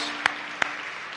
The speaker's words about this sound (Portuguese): E por que não dás um outro aplauso a Jesus Cristo? Eu, eu sei que podemos fazê-lo. Eu sei que ele merece todo aplauso.